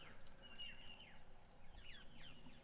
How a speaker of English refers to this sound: people saying, uh, how good do those morning birds sound in the background